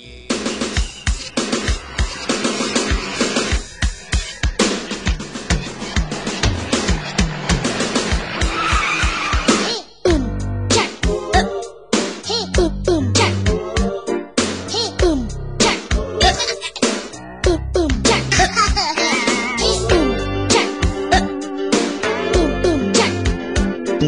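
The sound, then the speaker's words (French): A loud, upbeat funk TV theme tune with punchy bass and bright, busy instrumentation. A dense, noisy burst opens it before a steady groove takes over. No one speaks. “Jack, le bébé funk, c'était le générique de la grande famille sur Canal”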